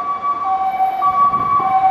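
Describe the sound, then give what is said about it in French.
A fire engine's two-tone siren wails steadily, alternating between high and low pitches, with low traffic rumble underneath as the truck passes by. “évidemment, quand je fais mon podcast, il faut qu'il y ait des pompiers qui passent.”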